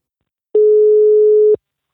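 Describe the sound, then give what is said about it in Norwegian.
One steady telephone ringing tone while calling a fortune-telling service, a clean mid-pitched beep lasting about a second that starts and stops abruptly, heard alone and fairly loud with silence around it. “Noen ganger ringer jeg spåtjenester”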